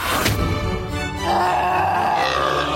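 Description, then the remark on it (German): A loud moose bellow: a deep, rough, drawn-out groaning call that rises in pitch partway through and carries on steadily for nearly three seconds with no speech. “Ein Elch!”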